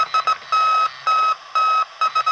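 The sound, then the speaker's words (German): The SOS distress signal in Morse code, originally the code of the German firm Telefunken, is beeped out as a bright, steady electronic tone: three quick pips, three longer tones, then three quick pips again, heard on its own without voices. “Dreimal kurz, dreimal lang, dreimal kurz.”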